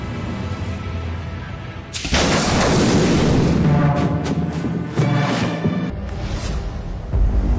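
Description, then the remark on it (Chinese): A sudden, powerful blast of a manually detonated bomb erupts after a low rumble, followed by several seconds of loud roaring debris and crackling that gradually settles, with no voices. “上次爆炸前，他们没听到卡通铃声，显然是炸弹膜手动引爆了炸弹。”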